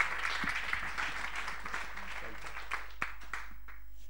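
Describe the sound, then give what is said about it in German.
A crowd applauds steadily to welcome a speaker as he comes on, a dense wash of many hands clapping at an even level, with a few sharper claps standing out near the end as it begins to thin. “And so why don't you give him a great big welcome as he comes also warum, to äh, klatsche nicht einfach mal und heiße ihn richtig willkommen hier?”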